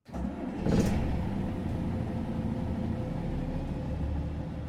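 A band's tour bus engine turns over and catches, then settles into a steady low rumbling drone as the bus is driven home; no one speaks.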